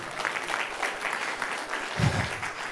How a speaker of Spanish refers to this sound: dan un aplauso fuerte, Señor, es lo fuerte.